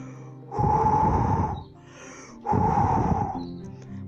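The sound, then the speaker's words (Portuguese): A voice imitates a wolf filling its chest with air and blowing at a house, two long forceful breathy blasts about a second and a half each, separated by a short pause, loud with no speech. “O lobo encheu o peito com bastante ar e soprou.”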